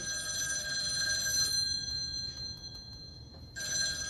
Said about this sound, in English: Oh my god, scary phone ringing.